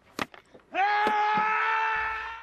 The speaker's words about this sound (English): For a scene in The Two Towers where Aragorn is overcome with grief, actor Viggo Mortensen kicked a helmet before wailing. Mortensen actually broke his toe when he kicked the helmet, and his scream was one of genuine physical pain.